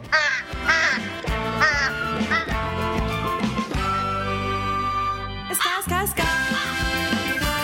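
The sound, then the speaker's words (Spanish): Loud, nasal horn honks mixed with raspy duck quacks in a busy, comical jumble, including one long held horn blast before the quacking and honking pick up again. “Y estamos oyendo aquí cuernitos y patos y de todo.”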